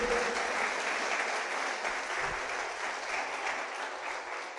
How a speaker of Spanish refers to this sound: ¿Qué tal si empezamos dándole un aplauso al Señor? Así bien fuerte.